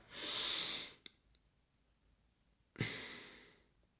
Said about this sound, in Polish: Jak widzimy, wdech 2, wstrzymanie 2, wydech 2, wstrzymanie 2. Te są wstrzymające, a te y, wdech, wydech.